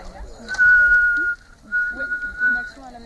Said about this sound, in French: Le deuxième, c'est chanter. Ah, et ensemble avec le sifflet.